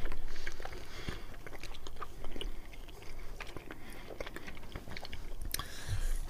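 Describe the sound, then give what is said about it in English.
Wet chewing of a sticky, dense, milk-chocolate-coated nougat candy bar with peanuts and coconut, with steady irregular smacks and soft crunchy clicks continuing throughout, with no talking. “Yeah, the nougat is um, reasonably solid, mm-hmm. which is good. Not melted like the uh, the other one that I started off the show with.”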